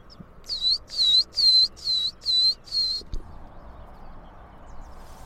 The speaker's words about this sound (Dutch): Ja, hoor Matkop zingend. Ja. Tju, Dat is een special, specialty van moerasbos. Elke schaarse soort.